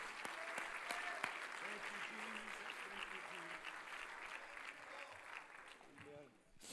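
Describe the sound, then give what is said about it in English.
A church audience claps hands unto the Lord in a dense, sustained burst of applause, steady and loud throughout, with a few voices calling out faintly beneath the clapping. “Could you clap your hands unto the Lord one more time?”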